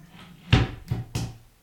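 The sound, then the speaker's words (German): A cupboard door is pushed and knocks shut three times in quick, uneven succession, each a hollow wooden clack with a low thud underneath, the first one loudest. “Jetzt hat er nicht nur den Stuhl, sondern auch den Schrank.”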